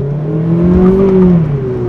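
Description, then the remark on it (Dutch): A Mazda MX-5 RF sports car test car with a 2-liter four-cylinder petrol engine of 160 hp drones loudly, its pitch climbing as it revs up through acceleration, then easing back down over two seconds. No voices are heard. “Kijk, dat was hij even. Maar met meer vermogen was deze auto nog een stuk spectaculairder geworden.”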